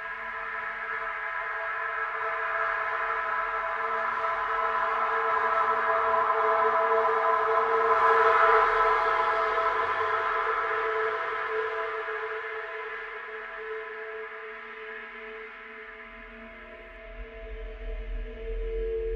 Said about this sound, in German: Jetzt haben wir aber das Problem gehabt, dass wir eigentlich ein geniales Tool gefunden haben, äh, mit dem wir sozusagen äh, den Straßenlärm in Realtime ähm, in was Interessantes Musikalisches verwandeln können.